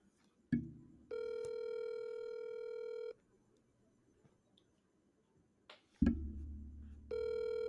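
A phone's ringback tone sounds twice: a steady electronic buzz lasting about two seconds, a long pause, then it starts again. A soft clunk precedes each ring, and no one answers.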